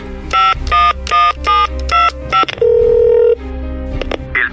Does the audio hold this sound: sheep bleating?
no